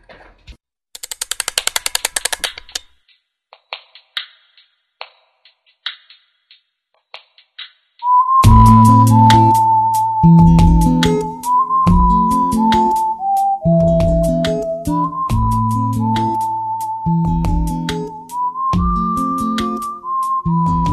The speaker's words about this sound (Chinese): 我们 听首歌， 对，我们先听首歌吧